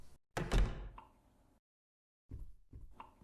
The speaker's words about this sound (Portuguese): Então você abre a porta.